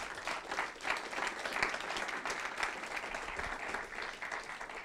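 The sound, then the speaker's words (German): An audience applauds steadily for several seconds, a dense wash of many hands clapping at a moderate, even level without any talking over it. “Geben wir unseren Online-Besuchern oder Zuschauern oder Teilnehmern einen kräftigen Applaus”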